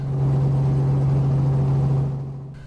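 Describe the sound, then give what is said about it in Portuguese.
A motorcycle engine drones loudly, holding a steady low pitch without clear revs, then tapers off slightly at the end, as riders perform risky stunts with their motorcycles at a street party in São Paulo, Brazil. No voices are heard. “Os frequentadores também se exibem com manobras arriscadas com as motos.”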